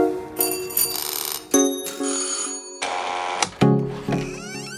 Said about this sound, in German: Okay, gehen wir mal rein? Ja, komm, wir klingeln. Klingel mal.